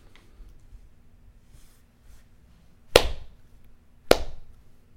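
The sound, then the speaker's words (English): Two sharp, loud claps land about a second apart in a slow, deliberate rhythm, each with a short ringing tail, over a faint low hum and otherwise quiet background. “the slow clap.”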